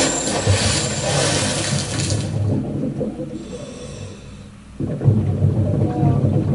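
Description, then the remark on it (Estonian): A person dives underwater: a bright splashing rush gives way to muffled, churning rumble and bubbling that swells again near the end, continuous and fairly loud with no voices. “kuuleme sukeldumise heli, see on inimene, kes läheb tutvuma veealuse maailmaga.”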